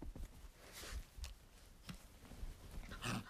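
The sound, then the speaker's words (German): A dog sitting on a bed makes odd snuffling, snorting noises in a few short, irregular bursts, quiet, with low rumbles between them and no one talking. “Das macht immer so komische Geräusche.”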